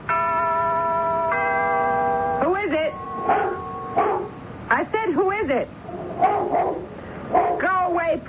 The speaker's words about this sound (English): Have you got a dog with you?